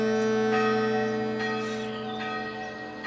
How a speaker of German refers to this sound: Wie eben die erste Glocke, die man aus Metall gegossen und nicht mehr aus Blech zusammengenietet hat.